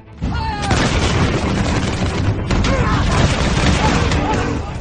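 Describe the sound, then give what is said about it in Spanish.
A dense second volley of arquebus fire, shot on command by soldiers with arquebuses propped on the ground, erupts almost at once and keeps rumbling loud and continuous, a thick roar of overlapping shots with a second surge midway, faint shouting voices mixed in. “arcabuces apoyados en el suelo, sacos de apóstoles y polvorines preparando la carga, balas que resbalaban por el cañón, baquetas ajustando el plomo, cazoletas llenas, mechas prestas y humeantes, y con la segunda orden, una nueva andanada.”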